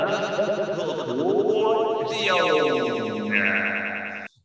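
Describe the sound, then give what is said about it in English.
A short, loud feature-name jingle drenched in heavy echo added in editing, its layered, effect-laden tones smearing together and stepping upward in pitch before cutting off abruptly. “going to sound really good in the edit because I'm going to put lots of echo in.”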